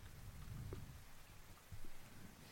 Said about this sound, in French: Et le soir arrive. La pluie bat son plein.